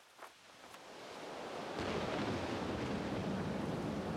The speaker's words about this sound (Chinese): 在一个冬天的夜晚，刮起暴风雨。